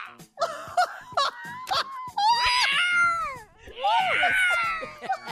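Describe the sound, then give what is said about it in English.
A voice imitates an injured cat with loud, wavering, drawn-out yowls and wails, rising and falling in pitch, preceded by a few short vocal bursts, prominent. “When he's done, he yells like an injured cat.”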